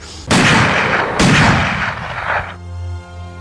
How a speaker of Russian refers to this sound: Ну, как в тире, стал стрелять из стабильного оружия в эту щель.